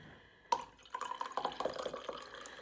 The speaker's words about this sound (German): Schon wieder bereit für einen Tee? Aber klar. Na, dann gieße ich dir doch mal ein.